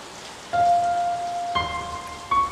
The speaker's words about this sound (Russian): Снаружи все еще завывал ветер, и дождь хлестал по окнам.